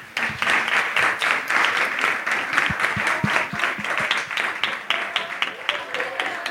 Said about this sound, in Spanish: Muchísimas gracias a todos por haber venido, así que se merecen un aplauso que se van a dar ustedes.